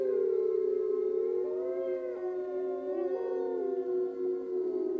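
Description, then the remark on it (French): A pack of wolves howls together at night under the stars, crouching with noses pointed to the sky in a hunger cry, several long wavering voices overlapping and sliding in pitch, sustained and fairly loud throughout with no talking. “Un par un, les loups vinrent la rejoindre, jusqu'à ce que la horde entière, accroupie, nez pointé vers le ciel, hurle son cri de faim.”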